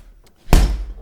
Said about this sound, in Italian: Nella sua cucina sta preparando il suo sandwich. E shh, ha deciso di applicarci il suo timbro. Questo ragazzo prende a pugni il panino.